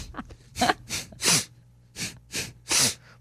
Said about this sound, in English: It's called breath work.